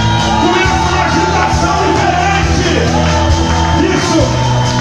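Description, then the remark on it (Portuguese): A loud, dense audience shouts and whoops together, a sustained joyful roar of many voices with overlapping cheers and yells. “Se o menino entrar na casa, começa a barulho de alegria”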